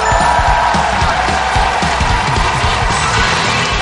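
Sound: audience applause and cheering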